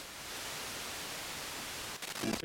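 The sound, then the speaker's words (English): Steady, loud radio static hisses for about two seconds, then briefly cuts and wavers with a faint warbling tone near the end as the dial is turned. No voices are heard. “Ah, tuner it in. Okay, I think it's there”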